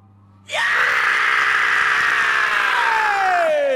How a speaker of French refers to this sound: T'es pas obligé de nous crier dans les oreilles